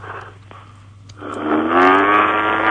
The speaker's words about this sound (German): Das ist ein ganz sympathisches, äh, lustiges, schönes Kuhgeräusch. Ja, ich glaube, schön. das ist eine Mischung aus Kuh und Propellermaschine. Oder vielleicht eine Kuh, die in eine Propellermaschine geraten ist.